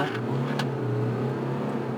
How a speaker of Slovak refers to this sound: Ale ani zvuk to nemá zlý na to, že je to naftový motor. Hej. 90. Nič. OK. Úplná pohodička, no. Sme mimo mesto na uzavretej trati, samozrejme. Ale ten, mo- ten zvuk motora prichádza tak od spodu, že taký reálny nie sú to reproduktory.